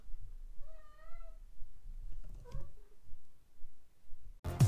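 cat meowing

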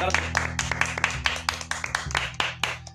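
applause

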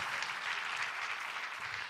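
audience applause

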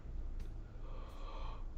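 yawn into the microphone

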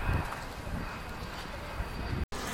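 airplanes flying overhead

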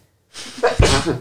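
sneeze

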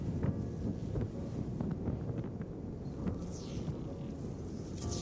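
cold wind blowing

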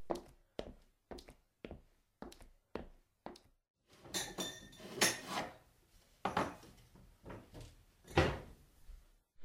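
clinking glass

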